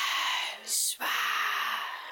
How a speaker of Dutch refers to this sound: vraag ik dan altijd om tekst, zanglijnen te laten fluisteren. Want als je dat een beetje erbij zet, dan krijgt het een beetje een, randje, zeg maar. Maar ook iets, een beetje iets duisters. Zoals dit.